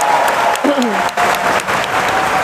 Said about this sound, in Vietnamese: các chị hãy dành một tràng pháo tay thật lớn dành cho bốn à, diễn giả buổi sáng nay